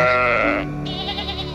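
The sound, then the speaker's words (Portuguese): Sheep bleating, one long wavering bleat followed by a second quivering call, loud and clear with no talking. “Você vê os pastores ali conversando entre si, ouve o balido das ovelhas, sente o cheiro da grama e das plantas ao redor.”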